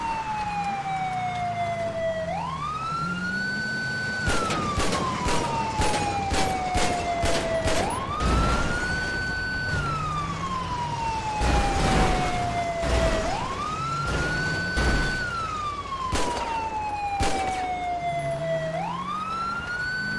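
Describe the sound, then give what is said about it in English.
Several rapid bursts of gunshots, fired at a man's car engine, crack out in loud clusters, while a police-style siren wails up and down steadily underneath the whole time. “Man, how long does it take to shoot this guy's engine?”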